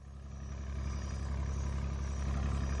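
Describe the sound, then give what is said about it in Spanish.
The engine of a small steamboat runs steadily on the boat's deck on the Amazon near Manaus: a continuous low, throbbing rumble with an even mechanical pulse, constant throughout, with no voices. “Escuche este diálogo que transcurre en el puente de un pequeño barco de vapor en el Amazonas, cerca de Manaos.”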